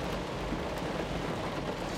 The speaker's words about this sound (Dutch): En het regent echt hard.